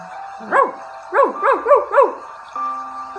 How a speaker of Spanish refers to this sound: los animales tienen su propia voz. Los perros ladran.